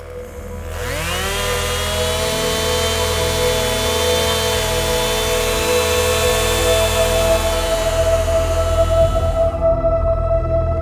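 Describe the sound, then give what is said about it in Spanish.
A chainsaw revs up from silence and then runs at a steady, loud, buzzing drone for several seconds before cutting off near the end, with no voices. “El capitán toma una motosierra, la enciende y camina con ella hacia el alacrán.”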